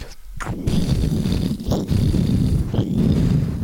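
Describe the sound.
A voice imitates the explosion of a shoot 'em up video game's final boss when it is killed, producing a loud, sustained rumbling roar with three crackling bursts flaring up across a few seconds.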